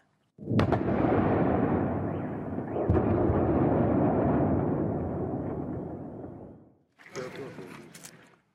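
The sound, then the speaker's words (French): Strong explosions in Kyiv, the Ukrainian capital, recorded around 5 in the morning: a powerful explosion bursts out suddenly and rolls into a long, loud rumbling roar with a second thud partway through, fading before another blast erupts near the end. “De fortes explosions ont retenti à Kiev, la capitale ukrainienne.”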